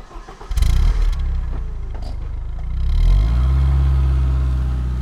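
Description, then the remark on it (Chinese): A car engine cranks and catches with a sharp burst, settles into a rough idle, then revs up and holds a steady, loud drone as the car pulls away. No one speaks. “欢乐车告别了艾摩斯爷爷，朝着彩虹的方向一直开过去。”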